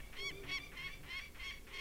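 peregrine falcon calling

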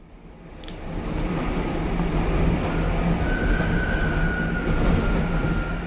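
train running on rails

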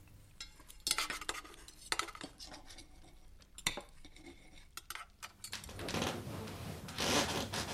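knife and

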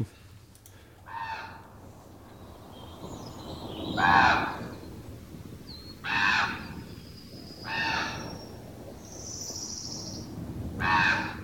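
common raven calls

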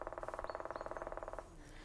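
black woodpecker call

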